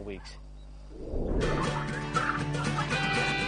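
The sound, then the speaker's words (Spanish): A flock of domestic turkeys at Bongis Turkey Roost, a farm near Plymouth, Massachusetts, bursts into loud, overlapping gobbling after a brief low rumble, the rapid warbling calls continuing steadily with no one speaking. “Cogemos los pavos con un día de edad y los criamos hasta la madurez, hasta las 20 o 24 semanas.”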